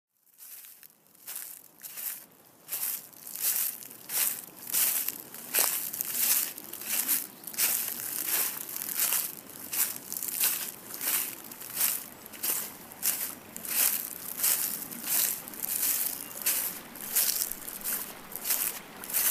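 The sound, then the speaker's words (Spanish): Steady footsteps crunch over dry, brittle ground, walking toward a forest on a sunny morning with two dogs, Maya and Tizana; each step a sharp rustling crackle in an even walking rhythm that continues throughout, with no voices. “Hoy voy caminando hacia el bosque.”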